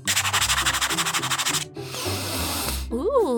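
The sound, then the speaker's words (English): Quick, rhythmic scratching over a scratch-and-sniff sticker of a piece of cake, about a dozen fast strokes, then a longer steady rubbing scratch, ending as a voice makes a wavering, sing-song sound. “And look at the cool sticker I got. It's a scratch and sniff of a piece of cake.”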